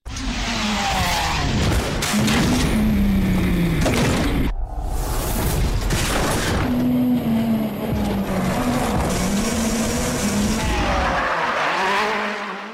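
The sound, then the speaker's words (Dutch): The race car of Ken Block, racing driver and stunt driver, roars continuously, its engine pitch rising and falling as it revs, with tires squealing and skidding throughout; loud, with a brief break partway through and no voices. “we hoorden een auto van eh, Ken Blok, de onlangs eh, veel te jong overleden coureur en waaghals”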